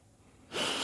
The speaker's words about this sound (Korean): 숨소리가 크게 들리시네요